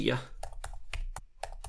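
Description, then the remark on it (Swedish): Quick typing on a computer keyboard while searching on Google: about eight crisp key clicks in an uneven rhythm, with a brief fragment of a voice at the very start. “En, jag klickade in på första träffen jag fick när jag googlade Safari Refuse Web API.”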